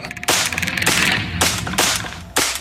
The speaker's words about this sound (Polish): Oddałem serię strzałów i momentalnie opróżniłem magazynek. Ręce drżały mi niemiłosiernie i nie wiem, czy jakikolwiek pocisk trafił w tego potwora.